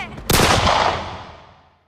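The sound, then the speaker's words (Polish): A single loud gunshot cracks sharply, then a long echoing reverberation that carries a few metres around rolls away and fades out over about a second and a half, with no voices. “Echo wystrzału poniosło się w promieniu kilku metrów.”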